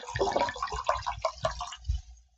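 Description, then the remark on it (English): Wine from a bottle with The Prophecy label pours into a glass, with a steady run of gurgling glugs and splashes that taper off as the pour ends. No voices are heard. “I get a little ASMR here. See how we sounding.”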